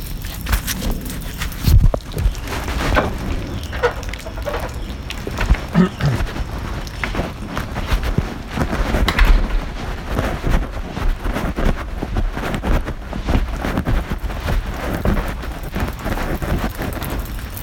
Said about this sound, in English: It's kinda raining and your car window's down.